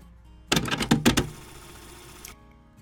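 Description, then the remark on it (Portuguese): A door opening: a quick flurry of sharp latch clicks and rattles, followed by about a second of steady hissing movement that cuts off abruptly. No one speaks. “Abra a porta.”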